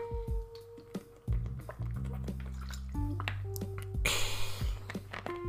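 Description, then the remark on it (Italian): Wet gulping sounds of someone drinking water to wash down coffee, a run of swallows with liquid sloshing and dripping, ending in a brief breathy exhale; no talking. “Sto caffè, raga, adesso lo butto giù con un po' di, un po' di acqua, un po' di ASMR per voi.”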